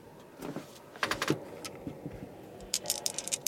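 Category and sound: household object, dice being rolled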